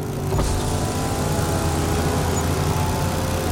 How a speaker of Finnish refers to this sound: Ja samassa pakettiautot kiihdyttävät ja tulevat Jeten molemmille puolille.